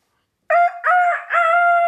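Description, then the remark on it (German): A person loudly imitates a chicken's crow during an animal-sound imitation game, a single drawn-out cock-a-doodle-doo in three rising-and-falling segments, with no other sounds around it. “Oh nee, Huhn kann ich nicht. Das, jetzt musst du mal ran.”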